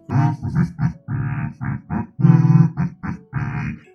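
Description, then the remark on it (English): A voice hums a low, buzzy, droning tune in a string of short phrases, imitating a massive warforged robot humming to itself while strapping a body down to a bed. It is loud, with gravelly, grunting tones and no words. “just humming to himself as this massive warforged just begins to apply multiple straps over this Githrakai body, strapping knives down to the bed.”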